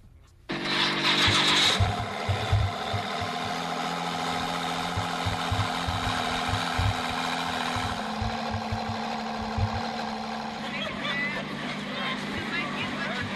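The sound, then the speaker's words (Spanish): A Ford GT sports car engine roars loudly and steadily for about thirteen seconds during a test drive at the Autódromo Hermanos Rodríguez, a dense mechanical drone over a low, uneven burbling pulse, with no clear rising or falling revs. “Bueno, es algo de lo que alcanzó a grabar Diego Hernández el día de hoy en el Autódromo Hermanos Rodríguez con la prueba de manejo de este Ford GT.”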